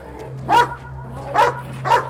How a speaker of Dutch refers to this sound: is een Mechelse herder, zoals je ze misschien ook van de politie kent, maar dan nog een tandje enger.